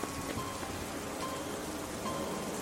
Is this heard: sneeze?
no